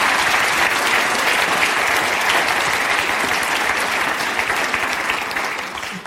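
Steady, dense applause from an audience, many hands clapping at once in a continuous loud wash that holds throughout and eases slightly at the very end.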